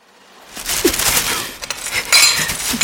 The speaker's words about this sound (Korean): 방금 전 그 일부가 배설물이 되었고 앞으로 또 배설물이 될 예정인 음식들을 가만히 내려다보다가 효진은 쓰레기 봉투를 꺼내와 냄비와 밥그릇과 접시를 몽땅 그 안에 털어넣었다.